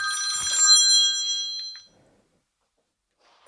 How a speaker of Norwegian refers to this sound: God, gammeldags eh, ringetone. Ja, liker den. Jeg er egentlig slått av uh, eh, lyd, men uh, ja.